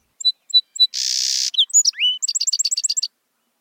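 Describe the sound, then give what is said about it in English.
A song sparrow sings a full song: three clear introductory notes, a brief buzzy trill, a few varied slurred notes, then a rapid series of bright chips ending the phrase. “In other words, if one song is a hit during the breeding season, these sparrows keep singing it.”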